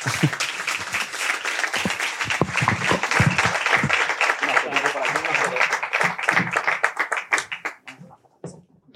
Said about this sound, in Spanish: Subid, subid, aplausos.